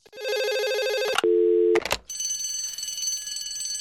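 A short electronic jingle: a bright, sustained ringing tone, then a lower steady buzzing note, and finally a shimmering high chord that holds to the end. It is loud and plays without any talking.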